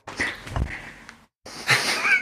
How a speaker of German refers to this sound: Schon wieder der Kater.